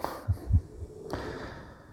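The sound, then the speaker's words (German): A small dog breathes heavily: a couple of soft, low puffs followed by a longer, airy hiss of breath, with no one talking. “ein Hündchen äh, atmet im Augenblick wieder ein bisschen stark, aber das gehört dazu.”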